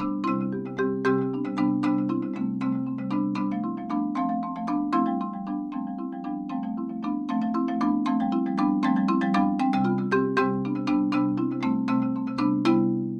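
A large marimba plays a steady flowing pattern of quick mallet strokes, bright struck notes ringing over warm sustained low tones, moderately loud throughout with no voices.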